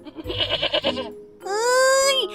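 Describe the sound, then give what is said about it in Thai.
A goat bleats twice, loud: first a quavering, wobbling cry, then after a short pause a longer, steadier bleat that bends upward before trailing off. “ดีจังเลยจอยอยากเลี้ยงแกะ เอ้ย เออเลี้ยงแพะมานานแล้ว”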